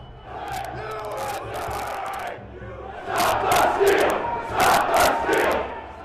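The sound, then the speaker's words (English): A large crowd of rioters shouts and yells inside the Capitol, pouring into the rotunda, crypt and Statuary Hall, a dense continuous echoing roar that surges louder in the second half with bursts of chanting voices. “Crowds began pouring into the rotunda, crypt, statuary hall, and other locations.”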